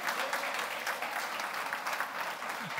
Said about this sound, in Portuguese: Dê uma salva de palmas para o Senhor.